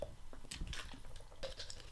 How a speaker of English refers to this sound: Let me get a drink of my water. My mouth is getting dry.